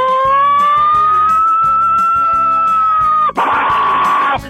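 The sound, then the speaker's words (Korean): A loud, sustained vocal imitation of an American siren, a steady wailing tone held for about three seconds, then abruptly shifting into a harsher, rougher howl before cutting off. “사이렌 소리.”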